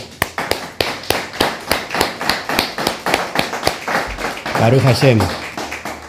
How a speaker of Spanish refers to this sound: Así que damos un fuerte aplauso.